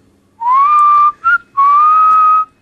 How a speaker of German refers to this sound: pfeife mal kurz an.